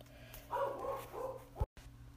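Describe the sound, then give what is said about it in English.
The speaker's dog barks twice, muffled and moderately quiet, each bark slightly drawn out over a low steady hum, followed by a brief thump and a moment of dead silence. “My dog's barking kind of got a little uh, a little distracting, so anyways”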